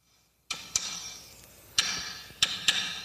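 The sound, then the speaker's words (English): Drum hits imitating a heartbeat as part of a first draft of a new drum opening: sharp percussive strikes in two double-beat pairs, bright and clicky, each followed by a lingering wash of hiss, with no talking. “Heartbeat, alarm.”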